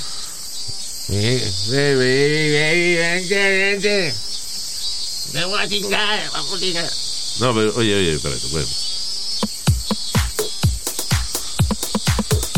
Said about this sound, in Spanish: Uh, uh. This is the cicada song.